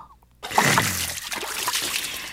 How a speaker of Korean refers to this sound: 전 당장 밀가루 4스푼을 풀어서 세숫대야에 휘휘 풀었습니다. 예. 물속에 밀가, 밀가루 풀어지는 모습이 마치 파도의 하얀 포말과도 같았죠.